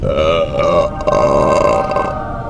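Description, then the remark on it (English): A long, loud belch rumbles on for over two seconds, deep and croaky with a steady, resonant tone, with no talking over it. “rating them with these suds ratings plus our signature belching sounds”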